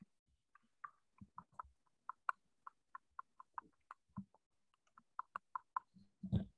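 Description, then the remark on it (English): Someone imitates Rice Krispies crackling in a mouth with water, making a steady run of quick tongue clicks and pops that ends with a louder, breathy smack. “So this, is, like the sound of, this is the sound of um of Rice Krispies in your mouth when there's water.”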